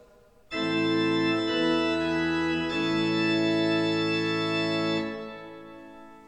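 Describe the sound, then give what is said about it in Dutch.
A pipe organ plays loud sustained chords with a bright mixture stop combined with the principal stops, shifting chords twice before releasing into a short reverberant decay. “Combinatie met de prestanten.”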